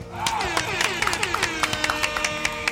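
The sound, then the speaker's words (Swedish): Brisk, scattered hand clapping from a small group, fairly loud, with a wavering horn toot running underneath throughout. “Vi kör såklart en applåd och en liten tuta på det!”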